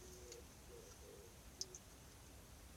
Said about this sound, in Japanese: 鳩が鳴いてたので鳩も応援してくれると思って ほら聞こえるかな